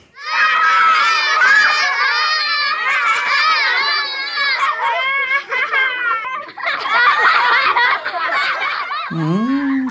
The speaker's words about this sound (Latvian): kas tur skanēja? Bērnu bariņš tā varētu būt. Mm, jā. Pie skolas, vai pie bērnu dārza, vai pie kādas. Vairāk izklausījās kā pagalmā.